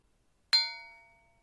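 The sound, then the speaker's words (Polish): A single strike of a small bell, bright and ringing, its metallic tone fading away over about a second, heard alone. “Niech przemówi dzwoneczek.”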